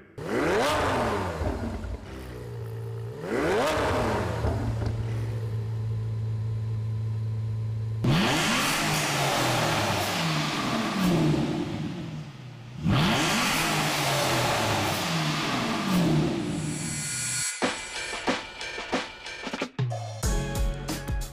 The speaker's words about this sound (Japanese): イタリアのランボルギーニとイギリスのアストン・マーティン同じ V 型12気筒エンジンとは思えないサウンドの個性を感じていただけましたか